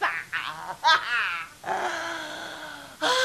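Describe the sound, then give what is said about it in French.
Orgasmic breathing: a run of heavy, breathy exhalations mixed with voiced moans that slide up and down in pitch, fairly loud, with a long drawn-out moan in the middle. “Ça, par exemple, ce n'était pas de la marijuana, c'était de la respiration orgasmique.”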